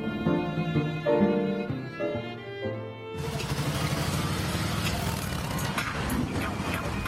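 After about three seconds of steady tonal sound, a motorcycle engine, being checked by a woman in her home garage in Los Angeles, kicks in abruptly and runs loud and rough, its low pulsing rumble continuing to the end.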